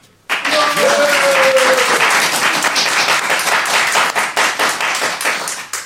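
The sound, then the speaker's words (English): An audience bursts into loud, sustained applause, clapping to vote for the world of Back to the Future 2, set in 2015, as winner; dense clapping that begins abruptly and then thins toward the end, with a brief whistle or cheer near the start. “And uh, if you think that uh, the world of Back to the Future 2, uh, set in 2015, would be the winner on the day, please clap now.”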